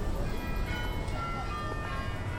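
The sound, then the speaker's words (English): Busy Amsterdam street ambience dominated by a steady rumble of a passing train or tram, with thin metallic tones ringing faintly above the continuous low roar. “Power on immerse yourself in the typically Amsterdam street noise.”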